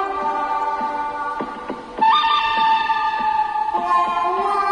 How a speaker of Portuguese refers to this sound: Aí é tiro pra todo lado. De ah, esquerda e de é direita. É isso aí. Faroeste, faroeste.